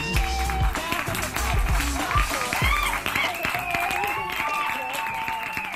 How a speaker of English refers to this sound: A few minutes later, Grandpa brought the song to a climactic end and the crowd whistled and clapped.